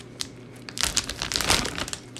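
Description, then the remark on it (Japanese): A plastic package is torn open while preparing to make karaage (Japanese fried chicken), with a burst of dense, crackly crinkling that swells and fades over about two seconds, moderately loud with sharp irregular crackles and no voices. “はい本日は唐揚げですはい続きましてそれでは早速封を開けましてはい封を開けていきます”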